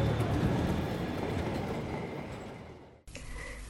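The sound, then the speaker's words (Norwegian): A train rolls in on the rails toward track 2 in the 1986 radio programme Naftatoget: loud at first with a broad, heavy roar, fading slightly before an abrupt cut to a brighter, steady rail noise. “Naftatoget kommer om et øyeblikk inn på ca. Spo 2.”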